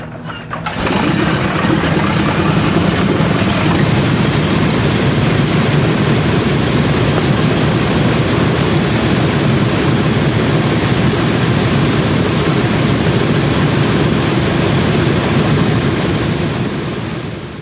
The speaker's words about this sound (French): Ce que vous venez d'entendre, c'est le démarrage au sol d'un moteur de B-17